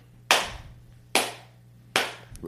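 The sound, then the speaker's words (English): Three sharp hand claps at a slow, steady pace, each a bright, loud crack that decays quickly, with a low steady hum underneath and no talking. “yeah, go ahead and clap.”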